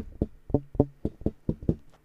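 A run of about nine short, muted electric bass notes, a muted technique a bassist often uses, played alone in a quick, fairly steady rhythm, each one a dull plucked thud that dies away almost immediately.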